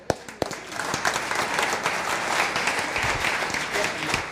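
Audience applause breaks out with a couple of sharp claps, then swells into a steady, dense patter of many hands clapping that holds at a fairly loud level for several seconds.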